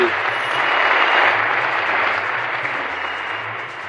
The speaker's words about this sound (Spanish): Ay, gracias, a mí sí me aplauden